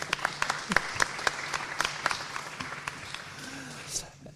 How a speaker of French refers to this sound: Ah oui, on peut applaudir tout à fait.